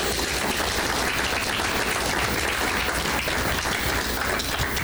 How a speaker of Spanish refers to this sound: Alce su mano que creen en Jesús. Denle un aplauso al que cree en Jesús.